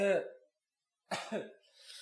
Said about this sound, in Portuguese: Tava tossindo.